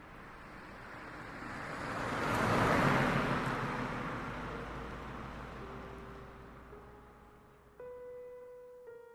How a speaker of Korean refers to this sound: 버스는 내가 내릴 정류장에 도착할 때까지 멈추지 않고 달렸다.